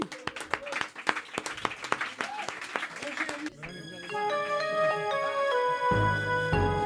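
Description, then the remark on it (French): Audience applause with a burst of crisp, irregular claps lasting about three seconds, then cut off as a bright musical jingle with sustained tones takes over. “Bravo, bravo. On l'applaudit.”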